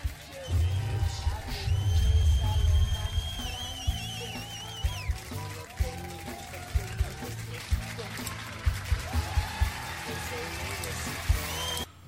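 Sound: crowd shouting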